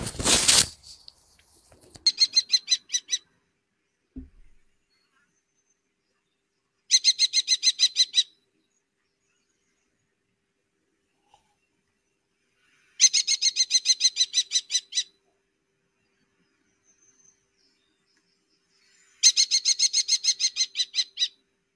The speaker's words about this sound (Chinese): 你们听到了吗？刚才这个就是红隼的叫声。